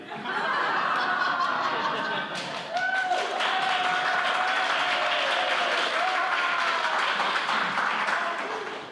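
Sustained audience applause at the first performance of the Sonic Summerstock Playhouse 2019, a dense, steady wash of many hands clapping for about nine seconds, with scattered whoops and laughter rising through it before it tapers slightly at the end.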